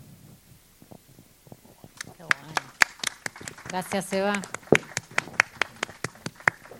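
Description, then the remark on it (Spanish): Scattered audience applause, with sharp individual claps in an uneven rhythm that builds and then thins out, while a voice briefly speaks over it in the middle. “aplausos.”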